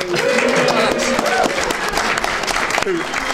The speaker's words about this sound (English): And after that hearty applause for Death to the Daleks,